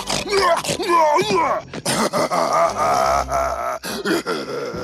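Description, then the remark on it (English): A person voices a long, loud Bigfoot-style groan, rising and falling in throaty, moaning swoops with brief breaks, continuous for several seconds, imitating the new sound design for Harold, likened to Bigfoot in A Goofy Movie. “Remember Bigfoot in a Goofy movie? He's like Bigfoot.”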